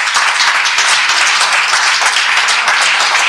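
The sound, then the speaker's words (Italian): A crowd at a church meeting applauds first-time visitors, dense overlapping claps forming a loud, continuous wash of noise that holds at an even level throughout, with no voices standing out. “Cioè, e un applauso a queste persone che sono qui per applauso.”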